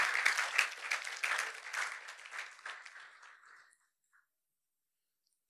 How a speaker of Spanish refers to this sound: Démosle un fuerte aplauso a nuestro Rey. Aleluya.